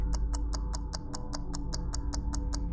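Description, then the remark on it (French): A clockwork timer mechanism, being set up beside boxes of gunpowder placed on the ground, ticks steadily and quickly, about five crisp clicks per second, even, over a faint low hum with no voices. “Arrivée à destination, elle sort des boîtes remplies de poudre à canon, les pose délicatement sur le sol et se met à installer le dispositif d'horlogerie.”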